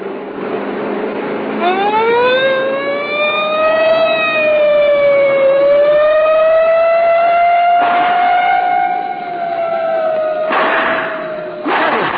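A police car siren, sounded to make a fleeing car stop, starts up after a second or two and wails loudly and steadily, its pitch sliding slowly up and down, with brief bursts of rushing noise near the end.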